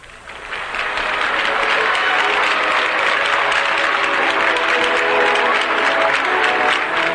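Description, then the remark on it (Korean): Sustained applause from a large audience of about 3,200 fills the ceremony hall as President Park Chung-hee and his wife arrive for the 8th presidential inauguration ceremony, a dense, steady wash of clapping that swells quickly in the first second and holds loud throughout. “검은색 연미복 차림의 박정희 대통령이 영부인 요경수 여사와 함께 식장에 도착하자 장례를 메운 내외 귀빈과 참석자들은 축하의 박수를 보냈습니다.”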